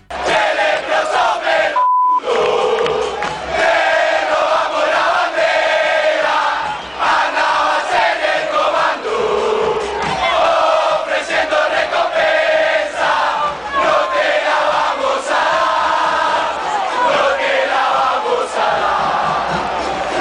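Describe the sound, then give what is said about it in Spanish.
A huge crowd of Rosario Central football fans loudly chants a terrace song in unison against their rival, the massed voices rising and falling continuously after a brief cut near the start. “Esta canción entonces la utilizó la gente de Rosario Central contra su rival y suena así.”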